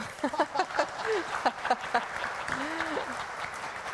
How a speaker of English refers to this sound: you guys are just doing what they did in the story, just celebrate, right? Just giving God glory. You guys are clapping for the Lord,